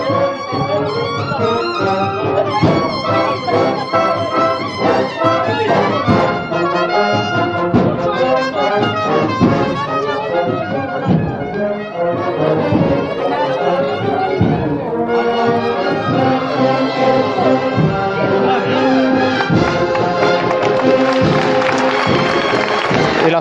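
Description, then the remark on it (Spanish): The agrupación musical Nuestro Padre Jesús Despojado plays its own slow processional march behind the float of Nuestro Padre Jesús de la Salud, brass carrying a sustained melody over steady drums, loud and continuous with a crowd murmuring faintly underneath. “esta marcha propia, tenía hace un año por la agrupación musical Nuestro Padre Jesús Despojado, que este año cumple 15 años tras el paso de nuestro Padre Jesús de la Salud.”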